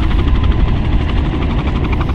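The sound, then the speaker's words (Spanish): The heavy, throbbing rotor roar of three helicopters rumbles steadily overhead as they circle flying very high, loud and continuous with a fast pulsing beat and no voices. “Pero el día en que nos íbamos a ir del manzano, pasaron tres helicópteros de los que nos andaban buscando.”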